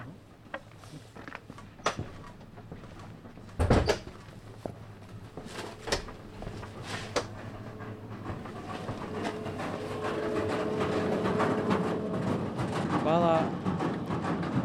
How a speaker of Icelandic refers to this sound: hér er þeir að kljúa eldi við á fullu